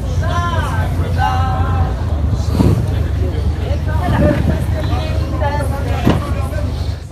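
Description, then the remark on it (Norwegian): Busy crowd chatter aboard a boat, overlapping voices and laughter over a steady low engine rumble, with several louder bursts of nearby talk. “Men det er fortsatt litt igjen, så får dere den gode stemninga på båten.”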